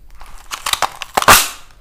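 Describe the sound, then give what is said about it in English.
A Christmas cracker is tugged with a few papery crinkles and crackles, then breaks with one sharp, loud snap that fades quickly. No voices. “Who's the first cracker I've pulled in donkey's ears? squealed Compton, rummaging excitedly for his paper crown.”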